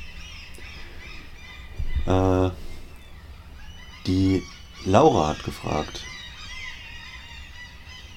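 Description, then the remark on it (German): Loud, harsh bird calls ring out from outside in several honking bursts, one lone call and then a quick cluster, with a person briefly speaking beneath them. “Oh, ist das eine Lautstärke hier von den Vögeln da draußen?”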